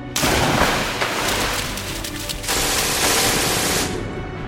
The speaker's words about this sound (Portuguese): E logo que os primeiros soldados pularam na água, as metralhadoras e canhões alemães começaram a abrir fogo.